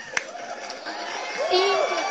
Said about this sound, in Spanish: un aplauso.